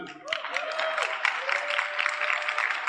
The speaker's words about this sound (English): Clap for Jesus.